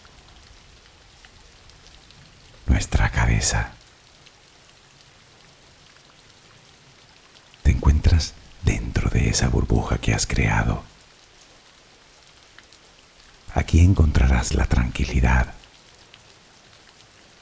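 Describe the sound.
Soft, steady rain patters continuously as a background while a calm voice guides a relaxation for sleep in three unhurried passages over it, the gentle hiss never changing.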